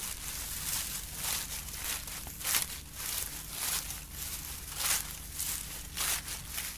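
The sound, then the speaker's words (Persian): Steady footsteps crunching through dry autumn leaves, each step a crisp crackling rustle, moderately loud, keeping an even walking rhythm throughout with no voices. “وقتی رو برگا میدوین صداشون چجوریه؟”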